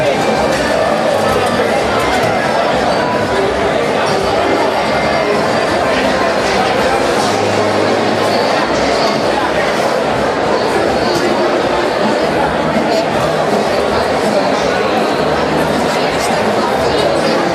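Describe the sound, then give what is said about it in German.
A dense crowd of people chattering all around, a steady loud wash of overlapping voices with no single speaker standing out, plus faint footsteps and clatter mixed in. “Viele Leute da.”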